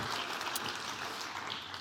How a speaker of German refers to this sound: Geht's euch gut? Wenn's dir gut geht, klatsch mal in die Hände. Voll schön.